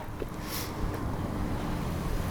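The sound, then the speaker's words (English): A car rumbles past, a low steady engine and road noise with a faint hiss of wind, heard alone at moderate volume with no one talking. “There goes the car.”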